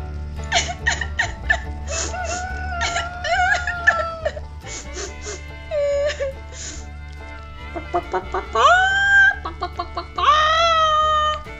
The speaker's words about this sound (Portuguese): Que foi, Mimi? Cacarejaram as galinhas.